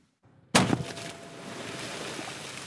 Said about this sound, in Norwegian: Sånn høres det ut når man skyter med hvalkanon. Og det trykket harpunen treffer hvalen med, setter grunnlaget til hvorfor Aksel Eikemo fra Fiskeridirektoratet anbefaler å bytte kanonene.